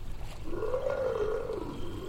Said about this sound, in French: Vous entendez Elle grogne déjà, et son regard a changé instantanément.